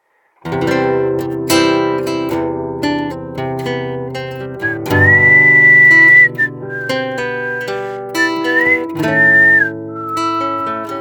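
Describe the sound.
A clear whistled melody rises over strummed guitar and backing music, with sustained, steady notes that come in phrases near the middle and toward the end. It is loud, with no talking.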